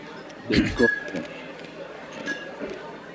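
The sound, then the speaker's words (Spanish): Crisp crunching of ice cubes from a drink being chewed, two or three loud bites clustered early, then quieter scattered crackles fading into a soft background hum. “Estoy, estoy crujiendo hielo, no estoy comiendo. Es el hielo del trago.”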